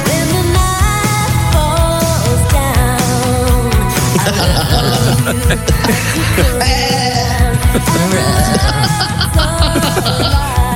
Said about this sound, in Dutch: En als je niet zo goed kunt zingen, dan klinkt je vibrato een beetje geforceerd. Dan kan de vibrato namelijk klinken als een geitje.